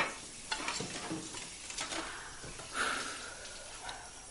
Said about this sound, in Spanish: Dorotea friega los platos. Jamie de pie a su lado le acerca la vajilla.